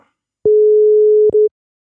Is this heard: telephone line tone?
yes